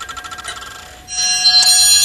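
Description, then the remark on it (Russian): An antique clock from Pushkin's time, in Pushkin's apartment, whirs with a quick, even mechanical rattle for about a second, then breaks into a bright, sustained chime that rings loudly and alone until the end. “В каждой комнате есть часы пушкинского времени – они везде показывают правильное время, то время, которое и сегодня на дворе.”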